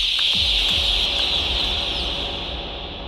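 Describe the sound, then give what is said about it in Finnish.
Chickens cluck over a dense, steady high-pitched chirping chorus, with a few low thumps near the start; the flock is fairly loud throughout, and no one speaks. “Mikä on niinku petollisempi tilanne, kun kana pitää kokkia emona?”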